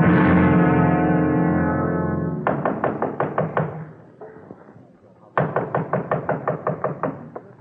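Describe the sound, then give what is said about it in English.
A held musical chord fades out, then a quick flurry of firm knocks on a door rings out. A short pause follows, then a second rapid burst of loud knocking. “Oh, I'll get it, Mother. I can open the door, can't I?”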